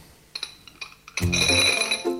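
A small egg container is lifted, giving a few light, separate clinks before a louder, ringing clatter as it is handled, with no talking.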